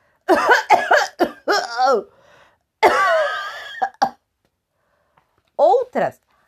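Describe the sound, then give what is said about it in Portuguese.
A voice acts out a fit of coughing: a quick run of short, throaty hacks, a longer strained cough, then two final hacks after a pause, all fairly loud. “Algumas pessoas tinham febre, outras começaram a tossir.”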